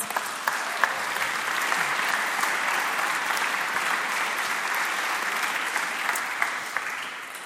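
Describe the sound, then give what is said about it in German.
An audience claps steadily for several seconds, a dense, even wash of many hands with a few sharper individual claps standing out, holding a consistent loudness throughout. “Gebt doch für das gerade Applaus.”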